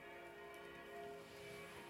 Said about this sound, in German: Ich musste kurz mein Fenster schließen, weil jetzt eskalieren die Kirchenglocken. Ja, wir hören es gerade.